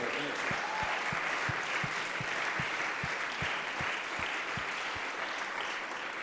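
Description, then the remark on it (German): Steady applause from an audience, given for Jesus after a report that 140 people were baptized in the Holy Spirit and 112 water baptized: a dense wash of many hands clapping at once with a few louder individual claps punctuating it rhythmically. “So I think we can give Jesus a hand for that.”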